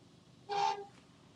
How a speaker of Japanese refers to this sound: お、びっくりした。隣の車が突然プーンと音